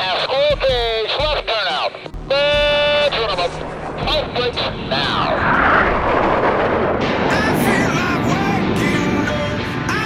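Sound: jet aircraft taking off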